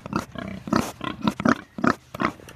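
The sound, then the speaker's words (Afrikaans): Healthy pigs in fresh mud after rain grunt close to the microphone, one almost biting it, in a rapid series of short, throaty snorts and grunts, several overlapping bursts with brief gaps between them. “Hoor hoe praat hulle met ons.”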